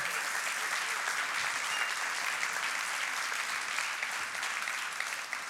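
An audience applauds steadily for several seconds to thank and honor the church's volunteer teams, a dense, even wash of many hands clapping at once, with no voices rising above it.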